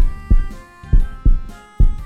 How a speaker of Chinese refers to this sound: 台上的小鸭麦麦听到了自己的心跳声